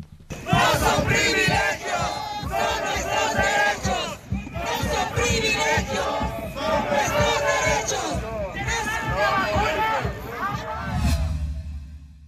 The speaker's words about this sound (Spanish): En fin, vamos a escuchar parte de las consignas que eh, ayer se eh, lanzaron justamente en esta manifestación.